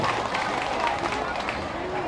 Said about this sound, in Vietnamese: xin dâng cao tràng vỗ tay thật lớn để thể hiện tấm lòng chung cảm ơn quý vị